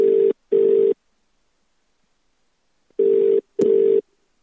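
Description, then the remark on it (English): A phone line ringing out with a steady double-burst ring tone, two pairs of buzzy rings separated by a pause of silence, with a faint click near the end, as a call is placed by pressing a speed-dial button on an old phone. “Get the old phone out. Press, press dial Woody.”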